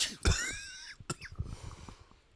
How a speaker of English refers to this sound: At the sound of the third cough, um, now we- we'll edit that cough, you know.